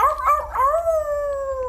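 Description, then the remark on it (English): A single wolf howls, starting with a wavering, slightly rising cry before settling into a long, steady note that slowly slides downward. It is loud and clear, with no other sounds. “Oh, there's a there's a full moon, and you hear a wolf, uh,”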